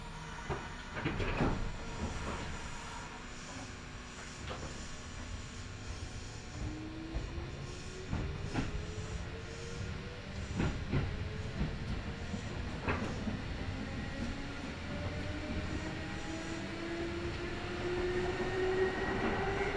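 A Kintetsu Nagoya Line local commuter train in Japan, running from Kintetsu Nagoya toward Kanie, rumbles along the rails with a steady low roar, a rising motor whine and sharp periodic clacks and thumps from the wheels over joints, heard from inside the car.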